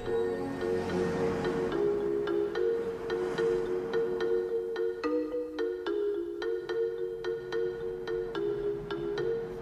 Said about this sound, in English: Hans Zimmerman his score again during this final moment that brings the movie home